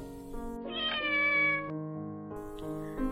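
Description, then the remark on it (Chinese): A cat lying lazily on a wooden chair with its eyes half-closed lets out a long, drawn-out meow, followed by a shorter, higher mew near the end, heard over a steady tonal background with no talking. “猫咪慵懒的趴在木椅上，眯起了双眼。”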